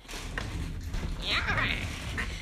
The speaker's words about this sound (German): Und übrigens, falls ihr ein bisschen Knarren im Hintergrund hört, mir ist langweilig und ich tue auf meinem Stuhl herumfahren.